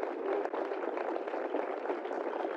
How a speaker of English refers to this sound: Okay, I tell you what, I tell you what, we got applause going on right now, but uh, you know that means clapping, Professor. People's clapping for us.